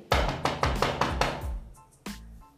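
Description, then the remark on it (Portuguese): Loud knocking on a door: a quick run of about seven hard raps, then a short pause and one final heavy knock. No voices. “Bateram na porta de novo.”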